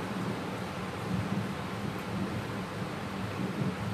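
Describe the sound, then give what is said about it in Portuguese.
A low, continuous rumble of thunder rolls steadily through the whole stretch, mixed with a broad hiss like wind or rain, and no voices are heard. “Um momento tão desafiador deu esse trovão, esse raio.”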